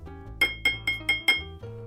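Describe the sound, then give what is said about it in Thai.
A drinking glass is tapped five times in a steady rhythm, each bright clink ringing with a high, sustained tone that fades briefly before the next strike. “ถ้าเสียงอันเนี้ยอันนี้คอซ่อมมันคือเสียงแก้วเนี่ยครับหรือเวลาสมมติถ้าถ้าผมต้องการจะเคาะแก้วแบบเนี้ย”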